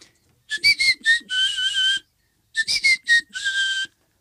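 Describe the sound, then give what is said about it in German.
A person whistles a short, bouncy call used to lure dogs and other animals: four quick chirping notes and a longer warbling one, then the same tune repeated after a brief pause, clear with no talking. “Genau, ich habe einen Hundepfiff mit, also einen Pfiff, mit dem ich immer versuche, alle Tiere zu mir Na? zu locken.”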